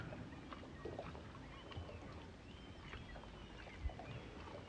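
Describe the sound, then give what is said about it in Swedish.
Water laps and clucks gently and continuously against a wooden jetty, with soft irregular splashes, a low murmur underneath and faint outdoor background sounds. “Jag sitter på en brygga. Kanske kan du höra mitt kluckande ljud av vattnet.”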